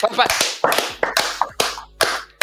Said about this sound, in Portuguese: Salva de palmas aí pro Snyder merecidíssimo.